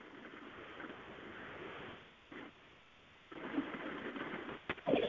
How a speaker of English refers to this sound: Sorry, you can hear this rain. Let me see if I can make this better.